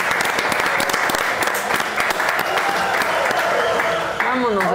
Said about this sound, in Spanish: Muchas gracias y Y aplausos a todos. Gracias.